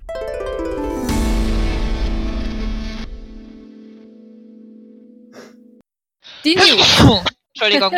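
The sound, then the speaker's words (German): A bright musical jingle gives way to a steady held tone, then a short silence before a sudden, loud, breathy sneeze, caused by dust stirred up while cleaning a desk. A voice follows with a brief laugh and a spoken apology. “Also tut mir leid, wenn ich ab und zu niese.”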